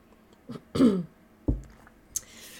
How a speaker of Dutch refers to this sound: Pardon als ik nu in je oor aan het kuchen ben.